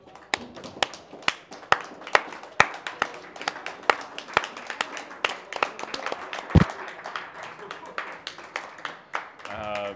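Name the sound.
round of applause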